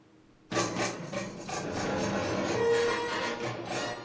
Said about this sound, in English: We we uh, we every once in a while go into a backmasking segment. All right. Which normally sounds like this.